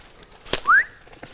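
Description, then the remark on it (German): A sharp click, then one short, loud whistle sliding upward in pitch. A person in a forest whistles a brief signal marking a mushroom find, alone and without talking, against a quiet outdoor background. “wenn wir ausschwärmen, haben wir uns äh, ähm, dieses Pfeifen”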